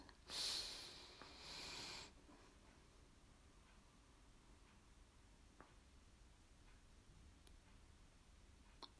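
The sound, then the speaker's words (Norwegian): An audible breath drawn in and let out in two airy rushes over about two seconds during a guided breathing exercise, followed by a long quiet stretch with only faint ticks. “Vi puster inn.”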